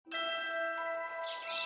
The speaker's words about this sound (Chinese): 清晨，窗外的麻雀叽叽喳喳。正在发电报给敌人。